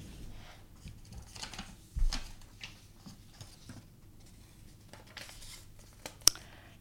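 A slip of paper, one of three holding questions, is picked up and unfolded, giving soft crinkling and rustling with a couple of sharper crackles, quiet overall and with no voices.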